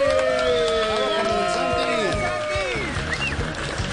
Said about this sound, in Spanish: Recibamos con un fuerte aplauso a Comedy Santi.